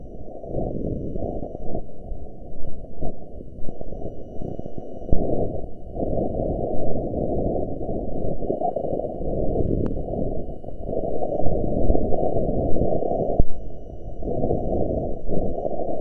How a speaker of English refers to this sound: scientists working with the Opportunity rover converted the measurements from its accelerometer into sounds, so we can listen to the terrain